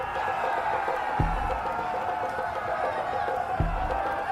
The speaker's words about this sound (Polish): myślę, że spojrzysz nad trybuny, na tych, którzy skandują teraz już twoje imię.